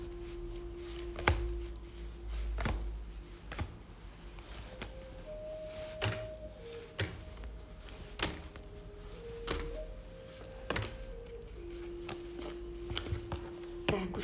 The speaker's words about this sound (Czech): A já už se dívám na vaši fotku, míchám u toho karty a my se spolu podíváme, co nám Tarot poví o vašem období 2024.